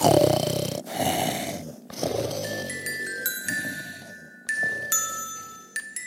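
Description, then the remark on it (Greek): Heavy snoring from a sleeping cat, rough breaths rising and falling in a loose rhythm, with faint jingling tones ringing in the background. “Άκου τον, οι γιορτές ονειρεύεται. Ακόμη και ο Πασπαρτού γλεντάει στον ύπνο του”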